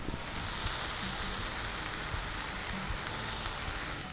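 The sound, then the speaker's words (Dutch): Bacon sizzles steadily in a frying pan in the kitchen of a top restaurant, a dense, even crackle and hiss, fairly loud from start to finish, with no voices. “Terwijl je die spek aan het bakken bent, kun je natuurlijk alvast lekker een flinke dot appelstroop op die boterham doen.”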